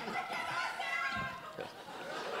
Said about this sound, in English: I didn't invite those people. Th- that, that's cool. just just people shouting Arabic things, scaring the shit out of white people.